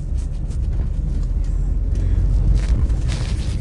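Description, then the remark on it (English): A supercharged four-cylinder car engine runs steadily as the car warms up on a chilly day, a dense low rumble that holds constant for a few seconds with a faint airy hiss above it and no talking. “Is that a powerful four cylinder in the hood with a supercharger?”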